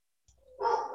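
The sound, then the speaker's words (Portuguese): A dog lets out a short, sharp, loud bark after a faint, brief lead-in, with no one talking over it. “Tem um cachorro latindo aí, por acaso?”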